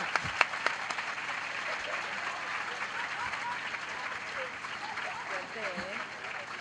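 Sustained audience applause for a worn-out thong shown on stage, a dense steady wash of many hands clapping with a few sharper claps at the start, continuing evenly for several seconds.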